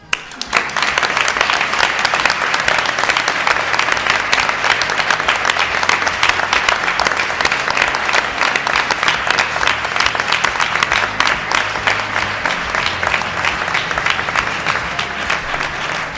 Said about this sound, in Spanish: Y desde el equipo de la Escóbula de la Brújula os merecéis año tras año el mayor de nuestros aplausos.